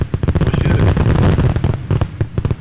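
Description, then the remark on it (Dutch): Rapid, dense crackling bursts of fireworks going off outside, a continuous barrage of sharp pops and bangs with a booming low rumble underneath, loud. “We worden een beetje overvallen door, eh, door vuurwerk.”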